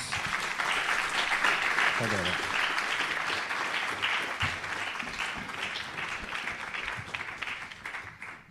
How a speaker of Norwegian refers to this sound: Vi gir dem en ordentlig applaus.